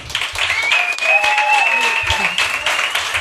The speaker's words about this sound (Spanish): Finalmente un tema de logística no ha llegado, pero lo que sí tenemos es el mejor de los aplausos para recibir a Natalie Poza y Ainhoa Santa María.